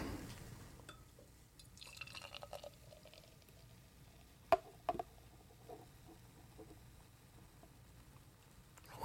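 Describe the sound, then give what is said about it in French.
Beer trickles quietly from the bottom of a can into a glass, with soft gurgling and dripping and two sharp little taps about halfway through. Faint, with no voices. “Fait revenir le fond, de, le fond de la canette.”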